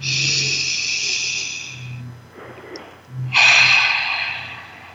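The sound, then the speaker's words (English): A single deep breath: a long, airy inhale, a brief pause, then a full rushing exhale. No one speaks. “Let's take a breath together.”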